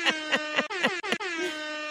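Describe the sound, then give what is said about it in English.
A blaring hip hop air horn sound effect blasts in a quick stuttering burst of about five short honks, then holds into one longer sustained blare, loud, with no talking. “Hip hop air horns.”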